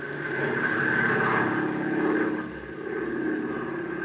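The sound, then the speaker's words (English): A propeller airplane drones steadily overhead above a river on a moonlit night, its engine a continuous, fairly loud hum that swells slightly and dips before returning, with no voices present. “A bright moon that stripped the river of shadows and made it a clear field of vision for a plane flying above.”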